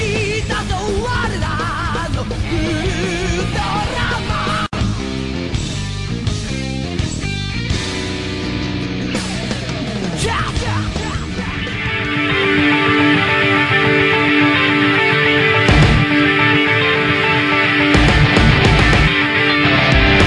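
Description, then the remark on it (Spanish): A loud, full-bodied opening theme plays on its own for about twenty seconds, busy and layered at first, then swelling into a brighter, sustained section with steady punchy hits near the end. “pero bueno, pues ya estamos aquí de regreso y pues ahí estuvo el opening.”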